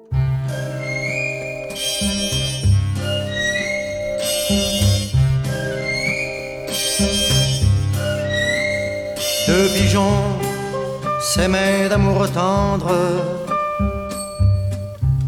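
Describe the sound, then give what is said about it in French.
A sampled French chanson recording plays at the start and end of a track, a voice singing a slow, lyrical melody over full orchestral accompaniment, steady and fairly loud throughout with no one talking over it. “La partie samplée, on l'entend au début et à la fin du morceau”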